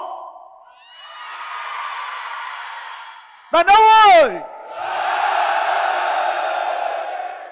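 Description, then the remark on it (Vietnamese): The men in a large audience in a room yell loudly on cue after a count of one, two, three, in two sustained bursts of mass shouting, separated by a short amplified shout from a single man leading them. “bao nhiêu trong số các bạn là những người đàn ông trong căn phòng này trong một vài phút tới hãy hét thật to để cho tôi được nghe âm thanh của bạn một hai ba cảm ơn các bạn”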